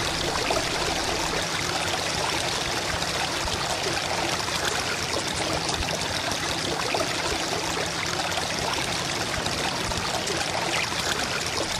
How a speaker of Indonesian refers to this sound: Belum pernah terjadi hujan selebat itu sejak mereka tahu. Dengan cepat air mengalir dari tempat ketinggian memenuhi sungai-sungai dan menutup permukaan lembah.